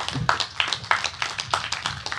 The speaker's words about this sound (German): Er hat es für Rap getan. Applaus für